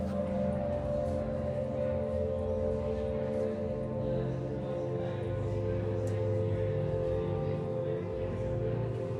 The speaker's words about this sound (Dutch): Je hoort heel sfeervolle muziek. Het zou niet misstaan tijdens een meditatiesessie. Uh, een hele fijne, rustige klank. En dat speelde zich af in een donker gemaakte ruimte tussen allerlei donkere doeken hier in de tentoonstelling.